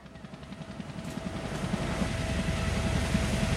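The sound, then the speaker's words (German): A helicopter flies over the sea after picking up a crew following a splashdown. Its rotor thumps in a steady, rapid chop over a broad engine roar, growing slightly louder over a few seconds, with no voices. “Jim Lovell blickt aus dem Hubschrauber, der ihn und seine Crew abgeholt hat.”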